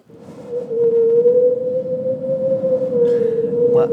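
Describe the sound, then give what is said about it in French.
A voice imitates wind whistling through a small hole in a window: one steady, sustained whistling tone held for several seconds, ending with a short breathy hiss. “Tu vois, quand, sur la fenêtre, il y a un petit trou qui fait ça.”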